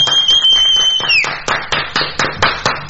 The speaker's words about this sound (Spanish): aplauda ahí a la computadora.